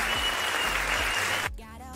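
A pre-recorded applause sound effect: a burst of dense crowd applause, steady and loud for about a second and a half, then cut off abruptly, leaving a brief fainter tail of noise.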